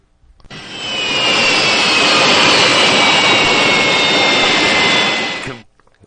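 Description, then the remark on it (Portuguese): A loud, steady jet-engine roar with a high whining tone, a person imitating an airplane on the radio program César Romão e você, starting abruptly, holding for about five seconds, then cutting off with no talking. “Ele já fez com a mão aqui na rádio qual é o movimento que o avião estava fazendo nesse exato instante deste som aí, né?”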